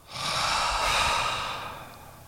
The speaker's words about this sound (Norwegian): Og måten vi kan gjøre det på ganske effektivt, at vi kan ta et dobbelt innpust gjennom nesen. Okay. For at det gjør at vi fyller opp hele lungene. Det høres sånn her ut åpne munnen og puste ut gjennom munnen.